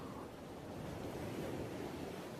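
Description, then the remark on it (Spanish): Steady ocean surf washes continuously in a soft, broad roar, waves rolling onto the shore with a slight swell midway and no voices present. “Disfruto de esta sensación de mar.”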